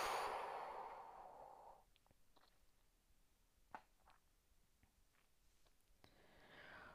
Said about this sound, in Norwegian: Hold pusten. Pust ut.